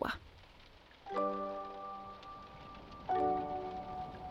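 Steady rain hisses throughout on a pitch-black, grey Thursday evening in a fairy-tale forest, a soft, dense patter with no voices, while two sustained, bell-like musical chords swell in over it, one after the other.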